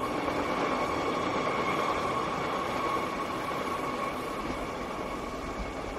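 A sleeper train rumbles steadily along a rattly route, a continuous broad roar with faint humming tones and rattling underneath, with no voices.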